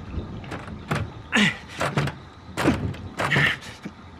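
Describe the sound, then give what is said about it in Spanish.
Several rattling, clunking jolts of a locked bathroom door's handle being tried, coming in uneven bursts, each a short metallic jiggle followed by a pause. “Está cerrada.”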